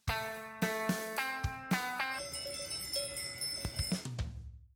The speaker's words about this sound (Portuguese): Ora então, mais uma vez, ouvimos tocar o nosso badalo da semana.